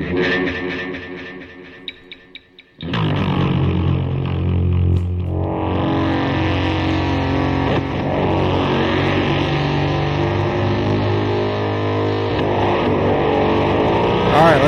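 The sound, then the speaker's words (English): A loud, steady wash of static noise cuts in abruptly after a few quieter seconds, hissing broadly with a rough, rumbling low end and continuing unbroken to the end. “I like I like that feature, the static feature. Needs static sounds.”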